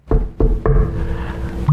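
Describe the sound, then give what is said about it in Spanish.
Three firm knocks on the door of a small, narrow classroom in quick succession, each leaving a short hollow ring before fading. “Y, llega él y nada más toca.”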